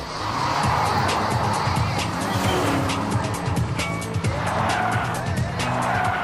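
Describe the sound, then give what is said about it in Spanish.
A stolen car's engine roars as tires screech and skid, the vehicle accelerating hard and pulling away with sustained, loud squealing throughout. “Pipa, pasamontañas, y coche robado.”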